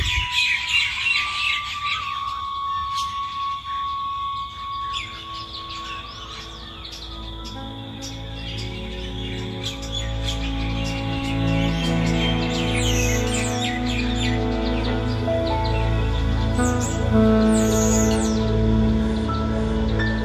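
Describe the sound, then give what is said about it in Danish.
Birds chirp and call steadily at sunrise, with bright tweets scattered over a continuous low ambient hum, giving a busy outdoor chorus with no one speaking. “Lydene fra fugle og fra i baggrunden.”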